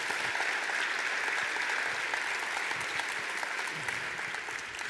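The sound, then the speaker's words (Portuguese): A church audience applauds for Jesus together, a steady, dense wash of many hands clapping that holds at an even loudness for the full five seconds, with no voices standing out. “E quem é que está seguindo a Jesus, dê um aplauso a ele.”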